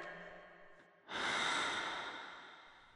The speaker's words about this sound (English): My breathing's different. Your lungs expanded, so your ribs had to readjust.